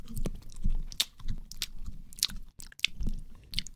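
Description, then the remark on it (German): Someone chews a piece of seaweed licorice, with a run of moist, crunchy bites and smacking mouth sounds in an uneven rhythm, moderately loud and without any talking. “Und dann würde ich sagen, äh, gut kau, oder?”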